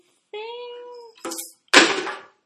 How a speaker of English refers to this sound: Oh, kitten! Sorry, the kittens are creating havoc around here. Being a mother of kittens is very difficult.